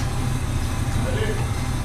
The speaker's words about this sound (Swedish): Motorn är redan igång